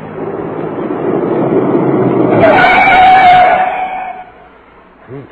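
A private car with Coahuila license plates, coming from Saltillo, rumbles louder as it draws near, then brakes squeal briefly and the noise dies away as it comes to a stop; a voice starts faintly at the very end.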